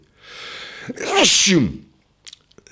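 A single loud sneeze: a breathy inhale building up, then a sharp explosive burst with a voiced edge, followed by a few faint clicks and quiet sounds.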